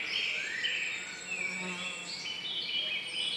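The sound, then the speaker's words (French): Forest ambience in a stand of beech trees about 70 to 100 years old at the Col de Faille near Saint-Dizier-en-Divoire, on the morning of 2 June 2019: a steady wash of high chirping and trilling birdsong over a faint continuous insect-like buzz, even in level throughout with no voices. “Et je vous offre ce matin un concert de forêt”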